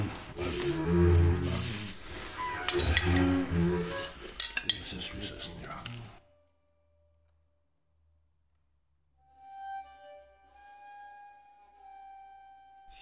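Busy clinking and scraping of cutlery against plates as lodgers eat a meal fills the first six seconds, fairly loud, then stops abruptly; after a pause, soft sustained musical tones coming from the kitchen drift in.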